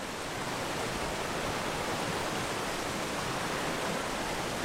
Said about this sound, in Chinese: 因为现在天在下雨，非常冷啊。那么这一路上呢，这是我走过的最难走的一条路啊，因为今天下很大的雨，所以把很多的路都冲坏了。